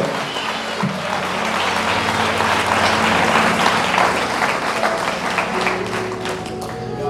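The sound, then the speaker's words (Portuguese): A church audience applauds in praise of God, a dense, sustained wash of many hands clapping at a fairly loud, even level, with a faint murmur of voices underneath. “Então já pode dar mais uma salva de palmas e glória.”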